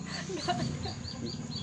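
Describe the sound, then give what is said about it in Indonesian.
Chickens cluck in short, repeated bursts, set against a steady, noisy outdoor background. “eh, ayamnya ini mana nggak kelihatan kan lu”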